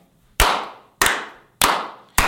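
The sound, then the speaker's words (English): A slow clap: four sharp, loud hand claps spaced evenly about six-tenths of a second apart, each with a bright burst that fades out before the next. No voices are heard. “But can we slow clap the brother yeah. out?”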